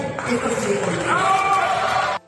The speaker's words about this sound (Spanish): Y le aplaudieron y le agradecieron los, los legisladores de oposición eh, esta declaración que hizo Olga, Olga Sánchez Cordero.